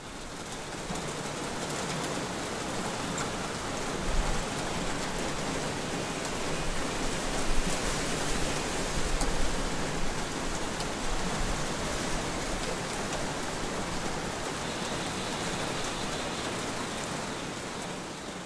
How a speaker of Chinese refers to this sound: 一旦开始下雨了，一旦这个雨的声音特别大的时候，其他的声音就变得很小，只能听到雨声，而这个是让我感觉非常平静的一种状态。也可以给你们听一下那天大雨的声音。